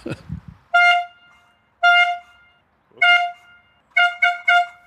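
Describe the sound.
A toy horn blares loud as the starting signal for an event: three long blasts with pauses, then a quick run of three short toots, after a brief voice at the very start.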